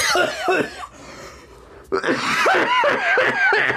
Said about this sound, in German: uiuiui, ui, jetzt hat er sich verschluckt. Jetzt hat er sich verschluckt. Ah, oh, oh, oh, ui, no.